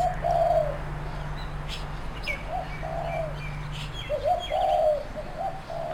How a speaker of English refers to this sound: Native bloody dove.